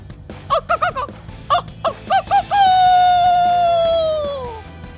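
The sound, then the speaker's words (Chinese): A person imitates a rooster crowing: several quick, clipped harmonic yelps give way to one long, loud, ringing crow that holds steady and slowly sinks in pitch before fading out. “响亮的鸡叫声跟真的一样，一群没睡醒的鸡都以为天亮了，他们输人不输阵，纷纷的。”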